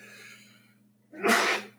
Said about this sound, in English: bless you. Yeah, bless you.